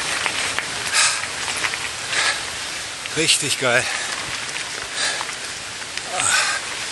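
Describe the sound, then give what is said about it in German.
A river in the Alps rushes steadily around boulders in a continuous, full hiss of moving water, while a man briefly speaks over it partway through. “Wie der Fluss sich hier um die Findlinge rumschmiegt.”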